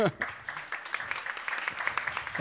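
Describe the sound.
A crowd breaks into steady, dense applause lasting a couple of seconds, with a voice briefly audible at the start and again as the clapping fades.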